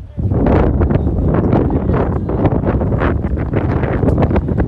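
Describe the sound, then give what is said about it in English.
Wind blows straight into a microphone on a windy day at Wilson Park during a baseball game between the Lebanon Yellow Jackets and Waynesville, a loud, steady low rumble and roar with gusty fluctuations that lasts the whole time, with some muffled voice-like sound underneath. “It's a windy day here at Wilson Park.”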